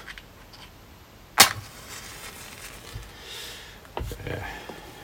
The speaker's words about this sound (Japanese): 例によってマッチでアルコールランプに火をつけましたおすげえ炎がでかいな